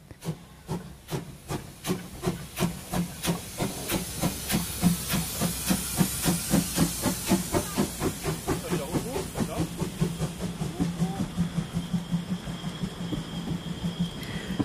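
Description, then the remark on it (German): A steam locomotive of a narrow-gauge railway on the island of Rügen, Germany, chuffs steadily and rhythmically, loud, each exhaust beat a sharp hiss of steam repeating for the whole stretch, with a constant hissing wash between the beats. “Die dampfbetriebene Schmalspurbahn ist ein besonderes Highlight auf der an Sehenswürdigkeiten reichen Insel Rügen.”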